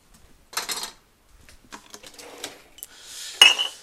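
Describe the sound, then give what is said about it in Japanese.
Breakfast dishes being loaded together into a dishwasher at home before it is run: a few bright clinks and clatters with scraping in between, ending in a sharper, louder clack. No one speaks. “今ね食洗機にいろいろ朝の食器とかもまとめて入れて今から食洗機を回します”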